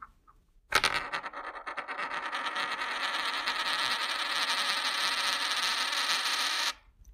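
A coin with a name written on each side is spun on a hard surface to decide who starts, giving a steady metallic whirring ring with bright overtones that holds for about six seconds and then cuts off abruptly. No one speaks.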